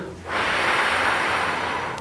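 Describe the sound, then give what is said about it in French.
A person blows a long, steady breathy whoosh through the mouth, fairly loud, imitating wind rustling through leaves as part of a breathing exercise; it starts abruptly and holds for almost two seconds. “On va souffler comme ça, comme si c'était le, bruit du vent dans, les feuilles.”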